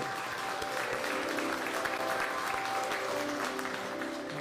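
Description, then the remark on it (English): An audience at Shades of Grace claps hands together during a Saturday service in sustained, dense applause, many overlapping claps blending into a steady wash of sound that holds evenly throughout. “And if you're happy to be here on Saturday, put your hands together so everybody in virtual congregation can hear you.”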